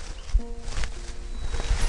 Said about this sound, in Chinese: 终于呀，响起了一阵脚步声